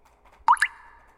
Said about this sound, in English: Is that your faucet?